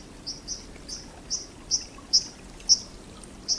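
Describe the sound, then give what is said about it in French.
A white-throated dipper gives a series of about eight sharp, high, buzzy calls at uneven intervals, clear, over the steady rushing hiss of a stream. “Un petit oiseau sous-marin des ruisseaux existe bel et bien. Je vous présente le simple plongeur.”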